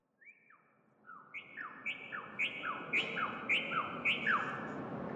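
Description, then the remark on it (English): Recorded songs of locally extinct birds once native to the area play from speakers in an alley art installation of suspended bird cages: a steady series of clear, descending whistled chirps repeating every half second or so, overlapping in two staggered voices, fairly loud, with no talking. “Then he added speakers, playing bird songs from the list of species Dr. Major curated that were once native to the area”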